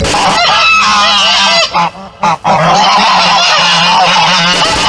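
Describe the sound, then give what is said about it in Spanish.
Loud, continuous honking from several geese kept by families to guard houses, harsh overlapping calls layered into a noisy chorus with a couple of brief pauses, and no one speaking. “En la región es usual que las familias coloquen un ganso para protección de casas, ya que estos son sensibles y en cuanto perciben algo extraño, graznan a niveles de claxon de microbusero.”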